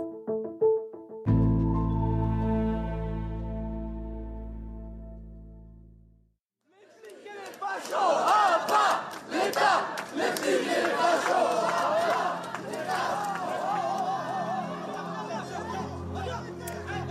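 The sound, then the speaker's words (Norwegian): A large street protest crowd in France chants and shouts against raising the pension age to 64, a loud, dense wall of voices filling the second half, preceded by a sustained low droning tone that cuts off abruptly. “Så franskmenn er jo glad i å streike og demonstrere og si ifra hvis de føler seg urettferdig behandla av eh, regjeringa.”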